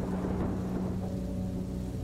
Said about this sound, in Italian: Piove sulla plancia della nave. Piove molto.